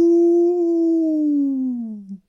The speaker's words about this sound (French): Blanche au loin a entendu les hurlements